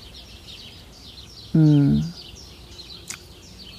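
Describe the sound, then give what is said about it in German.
Outdoors in sunshine, birds chirp and twitter steadily in the background, soft, while a person briefly murmurs a short humming sound midway through. “Ihr hört wahrscheinlich Vögel im Hintergrund und vielleicht sogar das Surren der Hummeln, die hier neben mir in die Akeleiblüten hineinfliegen.”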